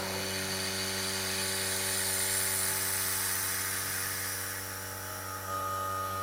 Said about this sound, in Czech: Tak si to vyzkoušíme, pustíme si vývěvu. Princip toho pokusu spočívá v tom, že ta výjeva dělá takový kraval, že ten zvoneček není slyšet. No. Tak já začnu odčerpávat vzduch.